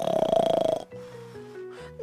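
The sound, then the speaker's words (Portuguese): A loud, rattling snore, likely voiced by a person imitating it, lasts under a second, then gives way to soft, steady tonal notes. “Nessa cama tinha uma avó, uma avó roncando”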